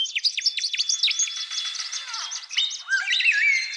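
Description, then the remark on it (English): Song of threatened Australian birds: a dense chorus of bright, rapid chirps and whistled trills, with several birds overlapping continuously, clear, and no voices. “This album consists entirely of Australian bird songs.”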